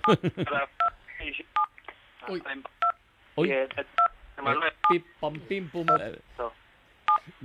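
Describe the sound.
Repeated short beeps of phone keypad tones, about nine evenly spaced presses caused by a man leaning on his phone, cut into his ongoing speech over a telephone line; he keeps talking while the tones interrupt him.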